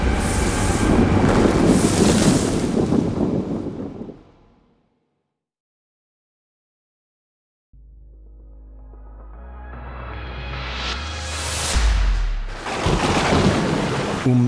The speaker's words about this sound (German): Es stürmt, blitzt und hagelt. Die Eisklumpen treffen sie im Gesicht.